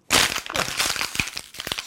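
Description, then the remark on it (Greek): A piece of paper is crumpled in the hands, a dense run of crisp, crackling crinkles with irregular sharper snaps, fairly loud and steady for about two seconds, with no voices. “Μια και έκανε και πριν κρατς και το και Το χαρτάκι.”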